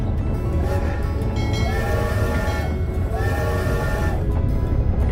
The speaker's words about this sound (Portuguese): E no decorrer da viagem, ouvindo aquele barulho repetitivo das rodas no trilho, ele pegou no sono, pois a euforia do dia tiver deixado ele cansado.